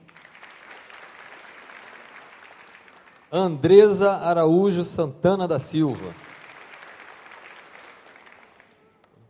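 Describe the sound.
Steady applause from a crowd, a soft continuous patter of many hands that pauses while a voice reads a name over a loudspeaker, then resumes and gradually fades out.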